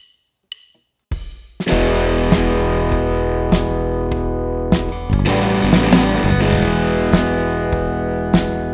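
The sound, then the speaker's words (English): A loud, distorted band track from a not-yet-released album kicks in after a brief sparse intro, with dense sustained guitar and steady drum hits driving a mid-tempo rhythm, no voices yet. “It's one of my favorite tracks on the album, and I have not played it anywhere for anybody”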